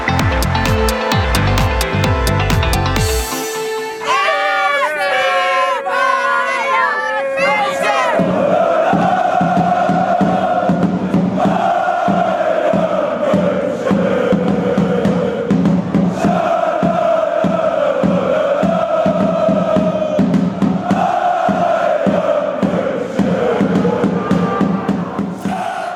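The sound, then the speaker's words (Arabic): After a brief burst of music, a huge crowd of Bayern Munich fans chants together in loud, repeating sung phrases supporting their team in a Champions League quarter-final, a steady roar of cheering filling the background throughout. “جماهير بايرن ميونخ مستعدة كل الاستعداد لمواصلة تشجيع فريقها ممثل البوندسليغا الوحيد في هذا الدور ربع النهائي”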